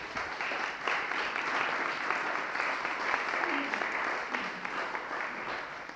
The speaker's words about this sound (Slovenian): Um, hvala, super za gosti, en velik aplavz, prosim.